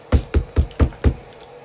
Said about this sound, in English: You find what you presume to be the cellar door, at least because it's bolted. Pound on the door again then.